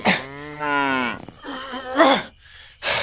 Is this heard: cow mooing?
yes